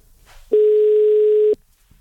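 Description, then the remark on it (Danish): A single steady telephone tone sounds for about a second, loud and clear, the ringing tone heard while placing a call to ring someone back, with near silence before and after. “Skulle hun gerne gå igennem, når jeg ringer hende op?”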